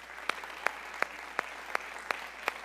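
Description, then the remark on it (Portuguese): An audience, standing, applauds Jesus, clapping together in a steady, even rhythm of sharp claps over a soft wash of scattered clapping, with no voices. “Será que nós podemos aplaudi-lo novamente?”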